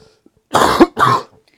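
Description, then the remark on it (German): Two short, harsh bursts of coughing and throat clearing, fairly loud, separated by a brief pause, with near silence before and after. “wie war dein Hustenkrebs, Halskrebs heißt das?”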